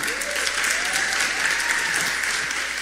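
A church audience applauds in a dense, steady clatter of many hands that holds at an even loudness for about three seconds, with a few faint voices calling out underneath.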